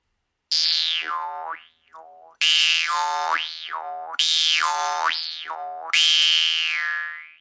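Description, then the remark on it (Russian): A Yakut jaw harp (vargan) plays alone, a loud buzzing drone whose twangy overtones swoop up and down in four repeating wah-like phrases. “она, например, выучилась игре на варгане. Этот инструмент — это часть музыкальной культуры шорцев”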